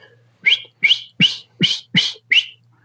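A person whistles with the mouth, demonstrating the same air used to blow a duck call: six short, evenly spaced notes, each a quick rising chirp, in a steady rhythm with brief pauses, fairly loud, with no talking.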